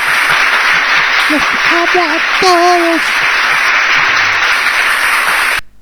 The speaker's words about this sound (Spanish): Aplausos cerrados.